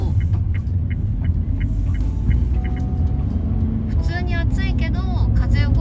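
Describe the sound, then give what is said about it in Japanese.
A steady, loud low rumble of a moving car, driven with the windows open and air conditioning off, with wind and road noise as outside air comes in throughout, while faint voices come through near the end. “なんか意外と乗ってる時は平気なんですよね風が動いてるしあの窓を開けてるからね外気の風が入ってくるし”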